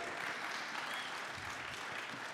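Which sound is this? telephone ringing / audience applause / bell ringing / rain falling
audience applause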